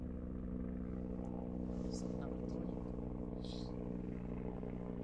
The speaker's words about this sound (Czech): Máte vrtulník? No nevím, to nějaký vyhlídkový let asi ví, že tady točíme. To je tady nějaký ten boháč no, vlastně. Nevím, asi jo. Ten už tady má helikopter, ty jo.